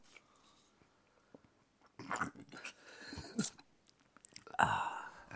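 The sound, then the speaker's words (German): Wet lip-smacking and slurpy mouth noises while drinking, a quick irregular series of smacks and clicks that starts after a couple of quiet seconds and grows louder toward the end. “wenn du trinkst, dann trinkst du, ich mach's ganz zuvor. Also das, das Schmatzen ja. gehört ah. dazu.”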